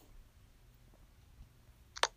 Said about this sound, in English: keyboard that keeps on clicking even when you're not typing.